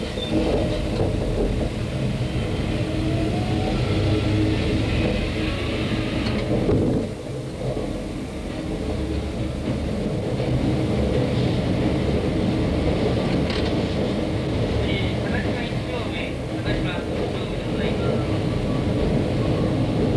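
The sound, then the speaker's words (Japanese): A train rolls along with a loud, steady rumble that barely changes for twenty seconds, briefly easing once; partway through, a muffled announcement voice sounds over the noise. “という具合で力強いですね、まあ、電車が、えー、動く音そして途中ちょっとアナウンスがね流れておりましたけれども、”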